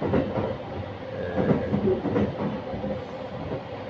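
A train rumbles along steadily, its wheels clattering over rail joints in loose rhythmic clusters of clacks above a continuous low, moderately loud roar.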